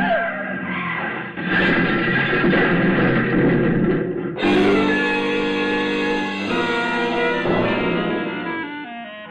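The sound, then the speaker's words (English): A car skids hard with loud, shrill tire squeals over a heavy, noisy rumble, the screeching stretching on for several seconds, intense, with no one speaking. “But, Paul, the other car. There's a man lying on the road.”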